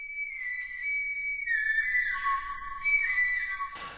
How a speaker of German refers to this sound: So klingt eines der ältesten bekannten Musikinstrumente der Welt. Eine Flöte, geschnitzt aus einem Schwanenknochen. Sie stammt von der Schwäbischen Alb aus der Geißenklösterlehöhle bei Blaubeuren und ist zwischen 35 und 42.000 Jahre alt.